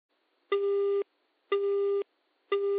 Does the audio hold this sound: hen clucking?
no